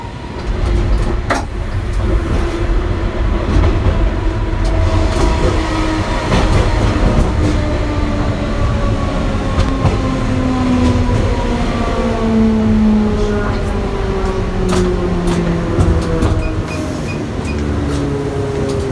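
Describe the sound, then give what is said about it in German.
A VT2E train in the Taunus decelerates as it pulls into Königstein, its final stop, its electric motor whine sliding steadily downward in pitch over a continuous loud rumble of wheels and rattling carriages. “Fahrtende. Bitte alle aussteigen.”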